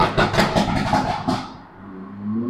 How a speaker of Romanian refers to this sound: mă scuzați, uh, îmi cer eu scuze că am deranjat uh, cursa cuiva cu toba spartă.